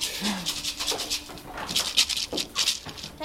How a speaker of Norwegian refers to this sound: Nå er ja, det er en sau som er så ivrig at han faktisk biter for å få oppmerksomhet.